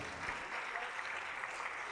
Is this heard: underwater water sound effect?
no